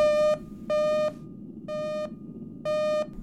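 Four evenly spaced electronic alert beeps signalling an incoming encrypted telemessage, each a bright harmonic tone lasting about a third of a second, repeating steadily over a low background hum with no talking.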